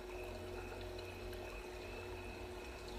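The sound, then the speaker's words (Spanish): A steady, gentle rush of falling water, like a small waterfall, flows evenly and continuously at moderate volume with no voices, with a faint constant tonal hum beneath it. “Tiene una pequeña cascada puedes escucharla en este momento. Visualiza cómo el agua cae suavemente y te llena de relajación.”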